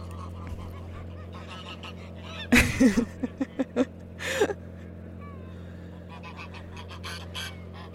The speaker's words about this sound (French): J'ai fait fuir un troupeau d'oies.